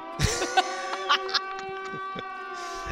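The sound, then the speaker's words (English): A tsunami warning siren holds a steady, droning tone through the whole stretch, moderately loud and carrying, with a few brief knocks and rustles breaking in. “The, the siren went off, and you know, right just the siren went off for the tsunami.”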